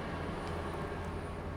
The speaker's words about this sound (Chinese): 好，我们还是等这个火车过去吧。我觉得这一台有点吵。